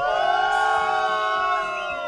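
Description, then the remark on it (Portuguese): A crowd boos Irineu, a driver from Aviação Transpasso, in one loud, sustained wave, many overlapping voices holding long drawn-out tones for about two seconds without letting up. “Motorista Irineu da Aviação Transpasso, que vai ser devidamente vaiado.”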